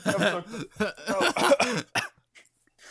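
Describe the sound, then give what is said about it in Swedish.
A series of harsh coughs and throat-clearing bursts in quick succession, loud at first, then trailing off into a few faint sputters and quiet. “Det blev sådana mm. corona ASMR istället.”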